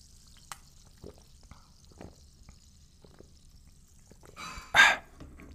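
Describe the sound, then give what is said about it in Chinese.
Sparkling water fizzing as glasses are raised for a Christmas Eve toast: a faint, steady high hiss dotted with scattered tiny pops and crackles, then a brief, louder rush of bubbling hiss near the end. No one speaks. “哦，我们不管怎么样呢，都让我们用这个气泡水来个大家来干几杯哦，干几杯哦。”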